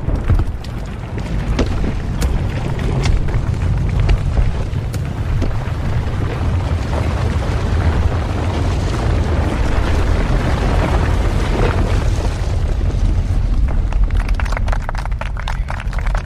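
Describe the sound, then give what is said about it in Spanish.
A large old building explodes after a big red button is pressed: a loud, sustained deep rumble with crackling and clattering debris running throughout, easing slightly toward the end. No voices are heard. “El gran edificio viejo explota.”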